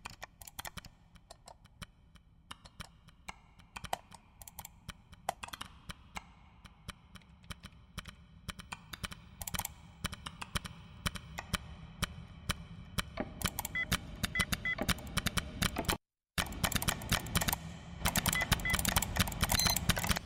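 Dense, rhythmic computer mouse clicks form a musical piece from the film The Big Short, sharp taps layered over a low sustained hum, growing busier and louder toward the end with one brief silent break.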